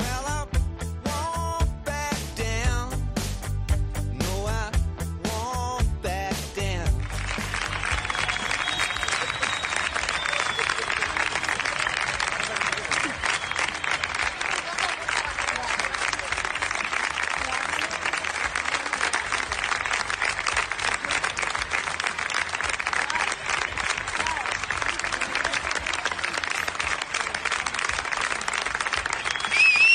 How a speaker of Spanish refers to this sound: es el aplauso de compañeras y rivales